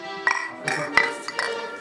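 Several glasses clink together in quick succession in a toast, bright ringing taps, with a faint murmur of voices in the background.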